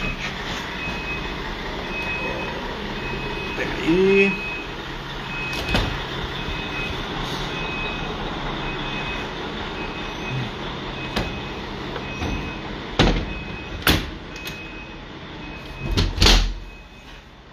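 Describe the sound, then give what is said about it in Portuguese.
A heavy truck arrives and parks outside, with a steady engine rumble, a faint tonal reversing beep, and several sharp clanks and thumps near the end. A brief spoken phrase occurs. “Fechar a janela aqui, o caminhão está estacionando ali com todos os barulhos possíveis, né?”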